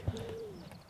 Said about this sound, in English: Brilliant weather. Not a cloud in the sky. Birds are out chickens are feeding